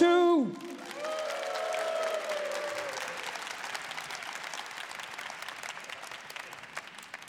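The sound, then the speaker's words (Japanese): An audience breaks into sustained applause as a three-member vocal unit is introduced to perform, a dense wash of clapping that carries on steadily for several seconds after a brief moment of voices and a fading musical tone at the start. “まずは3人のパフォーマンスを披露していただきましょうよろしくお願いくお願いします楽しんでください拍手”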